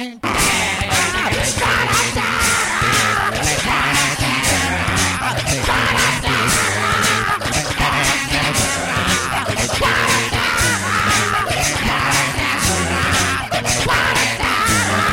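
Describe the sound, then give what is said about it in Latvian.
A beatboxer's voice imitates a full rock band, with shouted lead vocals over mouth-made drum hits and growling bass and guitar lines, loud and continuous throughout with a driving steady beat. “Patiesībā tas ir beatboxers Dokakā.”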